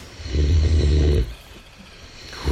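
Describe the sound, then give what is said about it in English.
A man snores loudly, one long rumbling inhale lasting about a second, followed by a quieter pause and the start of another snore at the end. “It is, of course, his snoring.”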